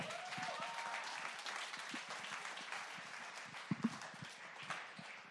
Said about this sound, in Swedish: Ge ja, honom en stor applåd.